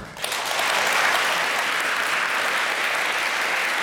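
An audience bursts into applause to welcome a guest, a dense, steady wash of clapping that swells within the first half second and holds at an even, lively level to the end, with no voices over it.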